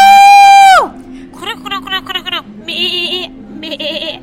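A string of farm animal calls: one long, steady cry that drops off sharply, then several quavering, bleating calls in quick bursts, fairly loud with no other sounds around them.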